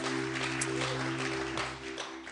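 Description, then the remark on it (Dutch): Steady applause from an audience for the band, a dense patter of many hands clapping without pause, with a low sustained hum running underneath throughout. “Hey, can we give the band a hand?”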